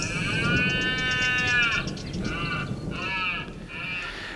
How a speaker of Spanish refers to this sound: Y hay otro venado a lo lejos en la Sierra de los Alcornocales que está anticipándose a la, al inicio de la berrea. La berrea precoz.